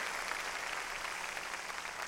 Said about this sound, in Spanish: Démosle palmas fuertes, hermano, a nuestro Señor. Mire qué cosa.